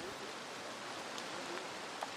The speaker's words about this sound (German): Samstagmorgen und natürlich regnet es immer noch. Gut für die Natur, schlecht für den Aktivismus.